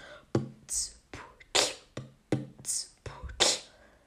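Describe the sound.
A mouth-made beatbox groove at moderate tempo, alternating sharp kick-like thumps with hissy snare and hi-hat sounds in a steady repeating pattern, with no speech.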